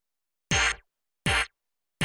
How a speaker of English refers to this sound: There's some stabby synths that sound like this.